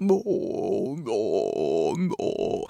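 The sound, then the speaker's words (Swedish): A person hums and groans a sustained, droning tone with a wavering pitch, imitating the hum of a train toilet's ventilation. It carries on for a few seconds, broken by a couple of brief breaths. “Och sen så är det någon jävla, jag vet inte vad det är ens en gång, men kanske ventilation eller någon sån vatten inne på toan.”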